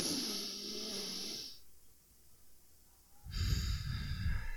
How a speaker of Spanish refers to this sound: Por lo regular, este, bueno, antes, justo antes de, participar, de entrar a, eh, eh, a participación, yo hago ejercicios de, ejercicios de respiración. Entonces, respiro profundo